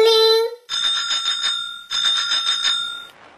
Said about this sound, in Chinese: 远处传来刺猬的自行车铃声。老鼠牙医看到刺猬正往这边来呢。